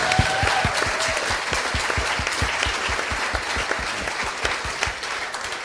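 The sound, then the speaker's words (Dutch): An audience applauds steadily for several seconds, dense clapping with a few sharper, distinct claps standing out, holding at a fairly even loudness throughout. “Nog even één keer applaus voor deze meneer.”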